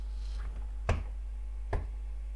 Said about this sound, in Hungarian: Au! Au! Au! Au! Belerúgtam, tessék. Még koppant és remélem behallatszott.